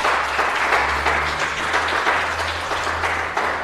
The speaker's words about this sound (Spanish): Por eso hay un equipo precioso que yo les pido que le den la gloria a Dios y un aplauso a ellos, que se esfuerzan.